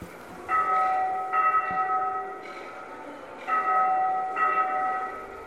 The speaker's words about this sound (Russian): Из одного динамика раздается звон церковного колокола. Таким способом доносится информация о том, что более 90% больных проказой верующие